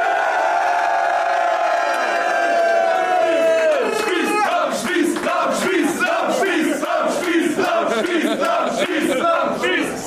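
A long, sustained tone slides downward and fades, then a large crowd at a Future of Battle Rap event erupts into loud, continuous cheering and shouting, with repeated whoops and bursts of yelling throughout.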